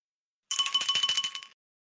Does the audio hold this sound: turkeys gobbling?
no